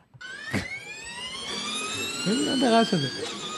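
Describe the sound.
A high, buzzing electric Formula race car whine that holds steady and slowly climbs in pitch for several seconds. A voice briefly murmurs underneath near the end.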